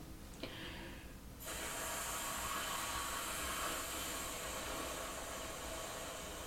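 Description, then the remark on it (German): A person imitates wind by taking a breath and then a long, steady breathy exhale: a sustained whooshing hiss that begins after a brief pause and keeps going, unbroken, to the end. “Also man holt Luft und dann atmet man wieder aus. Schön lange, pass auf. Und dann macht man so ein Geräusch wie der Wind.”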